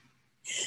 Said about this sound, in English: I'm going to sneeze. Can you believe this?